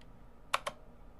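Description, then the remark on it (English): Two quick, crisp clicks of mechanical keyboard keys, fairly distinct against a quiet background, with no one speaking. “Do you want to hear the typewriter kind of keyboards? What is that called? Like the hard? The mechanical.”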